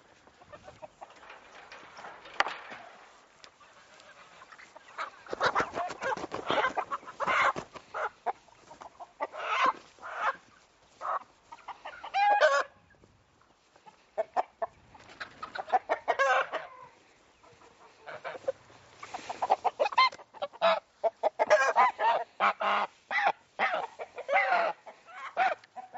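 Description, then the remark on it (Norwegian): Chickens and a rooster cluck in busy, irregular bursts, the calls overlapping and pausing briefly before the flock starts up again, with no talking. “Du er en høne. Det er den der der, men han veit det. Han veit at han er en hane.”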